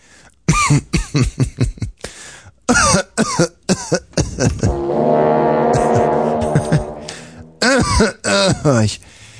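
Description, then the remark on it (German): Someone who does not actually need to cough forces out a string of short, deliberate coughs and throat clearings, breaking in the middle into a drawn-out, voiced throaty rumble before a few more sharp coughs. “das ist so schlimm, wenn man gar nicht husten muss, aber gern mal husten würde.”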